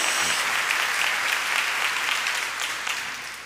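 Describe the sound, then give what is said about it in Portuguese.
A crowd applauds steadily in celebration in the name of Jesus, a dense wash of many hands clapping at once, holding strong throughout and easing off slightly near the end, with no one speaking over it. “Pode dar salva de palmas, pode celebrar aí em nome de Jesus.”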